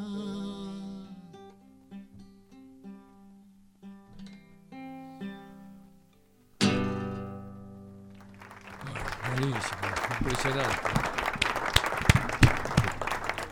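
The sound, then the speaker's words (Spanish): A radio station's studio audience, standing, bursts into loud, sustained applause, dense clapping that follows a live music performance ending on a final ringing chord and continues steadily to the end. “La radio platea que tenemos aquí se, puso, de pie y se a aplaudir.”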